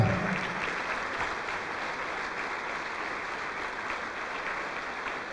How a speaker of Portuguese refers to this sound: Vamos aplaudir, igreja.